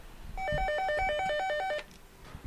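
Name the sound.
telephone ringing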